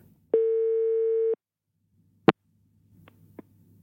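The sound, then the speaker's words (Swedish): As a phone call drops, a single steady electronic phone tone sounds for about a second, followed by a sharp click and a few faint clicks and rustles over a low hum. “Här bryts vårt samtal och Ali skriver till mig att han ska gå till en kompis som har bättre mottagning”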